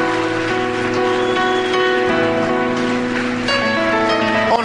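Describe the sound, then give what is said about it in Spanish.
A church audience applauds its ministers steadily and loudly throughout, a dense crackle of many hands clapping, mixed with sustained organ-like music chords playing underneath. “Póngase de pie, denle fuerte el aplauso a los siervos que trabajan día y noche.”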